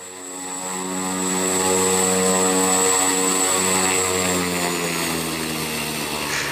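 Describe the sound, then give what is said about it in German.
A single-engine turboprop aircraft, a nine-passenger plane with a 675-horsepower turbine in the nose, starts up and swells to a loud, steady roar, with a droning propeller hum beneath a high turbine whine. No one speaks. “Auch wenn es sich fast genauso laut anhört, wenn Matthias Glass den Motor anwirft.”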